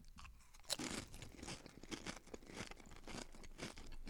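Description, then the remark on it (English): Loud crunching of a crisp snack being chewed, with rapid irregular crackling bites repeating steadily for several seconds and no talking. “Chew it up.”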